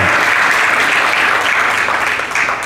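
An audience applauding God together, a dense, steady wash of many hands clapping at once that stays loud and even throughout, with no voices standing out.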